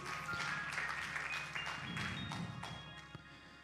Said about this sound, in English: Can you clap your hands as you're seated?